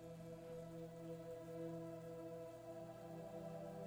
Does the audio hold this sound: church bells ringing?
no